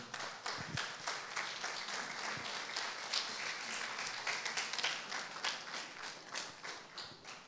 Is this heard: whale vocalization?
no